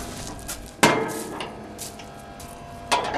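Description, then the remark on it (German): Sharp metallic clunks of a lock and heavy door of a construction-site container being unlocked and opened: a loud bang, light rattling and scraping, then a second firm knock, with no talking. “Einen davon will Bernhard Volz aufsperren.”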